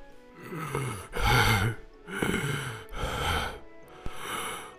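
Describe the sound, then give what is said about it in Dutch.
A voice imitates a worn-out dragon panting for breath: about four heavy, raspy gasping breaths in a steady rhythm, fairly loud, with no words spoken. “Hij hijgde om op adem te komen.”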